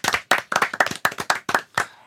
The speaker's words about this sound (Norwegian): Ja, ja. Applaus for det.